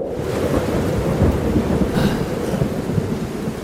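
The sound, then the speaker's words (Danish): Heavy rain starts and pours steadily while a deep rumble of thunder rolls underneath, a continuous loud storm wash with no voices. “Nå, I det mindste så regner det ikke.”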